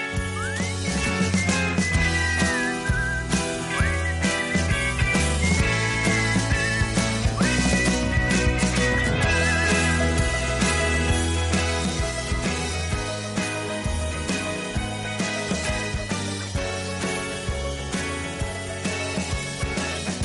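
A whistled tune carries the chorus of a song over a full, steady band backing, the bright melody gliding up and down at a constant loud level, with no one speaking.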